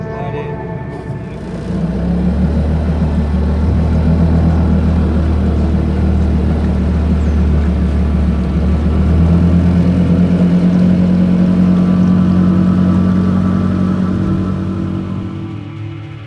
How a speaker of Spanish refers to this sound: Vamos a la, a la isla Paulino con la lancha